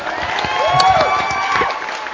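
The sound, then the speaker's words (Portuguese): A short burst of crowd applause mixed with cheering and a rising whistle, dense and steady at a moderate volume for about two seconds. “Pô, uma salva de palmas agora.”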